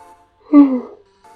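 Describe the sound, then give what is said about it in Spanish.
A single loud, drawn-out yawn: a breathy, voiced groan that slides down in pitch over about half a second. Faint speech sits just before and after it. “Ay, no sé por qué estoy bostezando demasiado.”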